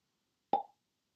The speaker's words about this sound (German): Plopp mal.